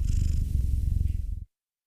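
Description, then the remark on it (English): A male ragdoll cat purrs loudly and steadily, a continuous low rumbling vibration with a slight pulsing rhythm that stops abruptly after about a second and a half. “Look, look how loud he's purring right now.”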